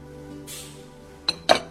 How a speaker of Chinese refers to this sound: 一阵乒乒乓乓的金属敲击，取代了他一向安安静静的作息。我终于按耐不住起身查看，却在开门后闻到了一阵食物的香气。